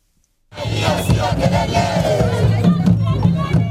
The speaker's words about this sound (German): Während des Klimagipfels in Kenias Hauptstadt Nairobi vor wenigen Tagen ziehen Aktivisten durch die Innenstadt. Sie fordern ein entschiedenes Vorgehen von Politik und Industrie gegen den weltweiten Ausstoß von Treibhausgasen.